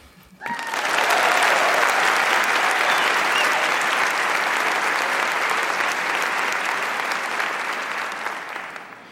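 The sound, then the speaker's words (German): A burst of applause starts abruptly and holds steady as dense, crackling clapping, easing off slightly toward the end. No one speaks over it. “Ich denke, dafür haben wir einen kleinen Applaus verdient.”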